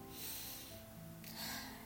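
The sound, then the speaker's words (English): A slow, deep breath drawn in during a guided breathing exercise between scripture readings, a soft airy rush that swells and then eases, with no talking over it. “Let's focus I'm breathing again.”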